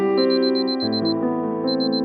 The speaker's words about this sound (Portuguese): No primeiro dia, o despertador ficou tocando por uns 10 minutos.